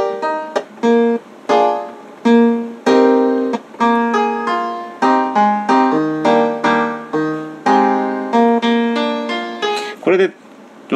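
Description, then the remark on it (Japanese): Short piano sample slices, cut and loaded into a sampler with filters applied, fire off one after another in a choppy sequence, each with a slightly different muffled, wah-like tone, bright with no one talking. “フィルターのかかりぐらいとかなんか変な音のうわんやんってなってる感じが、これ全部ちょっと違うのが。”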